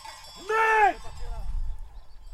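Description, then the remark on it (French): A single short sheep bleat rises out of a low outdoor rumble on a farm, with faint tinkling of bells in the background as the flock shifts about. “Et il, participe encore à la, à la vie de l'exploitation pour, les, pour la partie mouton. Euh, moutons.”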